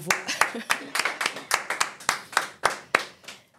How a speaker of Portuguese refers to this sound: Gente, uma salva de palmas de novo.